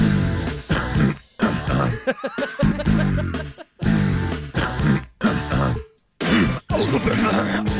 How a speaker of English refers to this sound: breathing so heavily after the burp. He's yeah. like, oh, took, that took so much out of me.